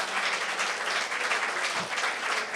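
A crowd at Velocity Seattle applauds steadily, a dense wash of many hands clapping at once with no single claps standing out, holding a fairly even loudness throughout without any voices.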